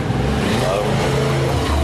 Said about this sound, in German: Ja, wir, sitzen, wir, wir, sitzen, hier draußen auf der Terrasse, lieber Zuhörer, und manchmal fahren hier so Autos, Motorräder genau. und Menschen vorbei.